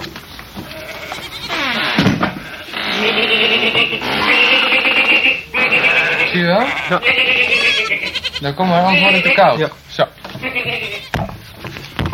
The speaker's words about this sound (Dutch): Kijk, ik zal even de deur open doen. Moet jij even een blik naar binnen werpen, daar staan mijn schapen.